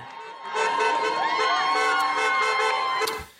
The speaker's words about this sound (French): Un rassemblement d'abord interdit qui a pu avoir lieu après la levée de l'interdiction de la préfecture par le tribunal administratif. La foule a été dispersée par les forces de l'ordre et s'est terminée en manifestation sauvage dans la capitale.